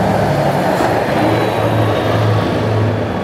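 truck driving past

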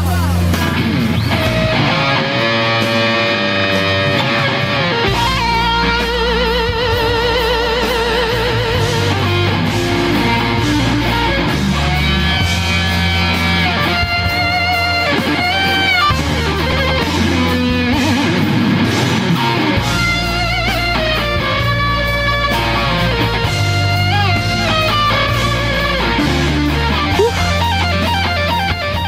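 electric guitar solo

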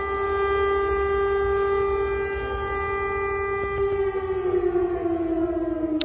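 air raid siren

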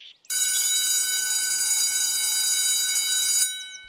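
school bell ringing

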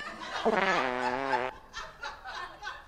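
fart sound played

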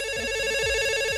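telephone ringing

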